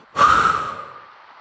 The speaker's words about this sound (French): Contractez l'ensemble de votre corps en bloquant votre respiration. Soufflez fortement par la bouche pour évacuer toutes vos entraves.